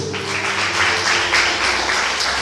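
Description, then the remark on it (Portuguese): A church audience applauding the Lord: steady, dense clapping that holds at a fairly loud level throughout, with a faint low hum underneath and no clear speech. “E depois pode aplaudir ao Senhor.”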